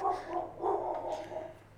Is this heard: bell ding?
no